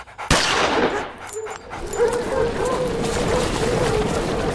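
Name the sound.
dogs barking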